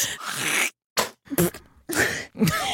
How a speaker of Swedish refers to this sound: Det var meningen att spotta men det lät som en prutt.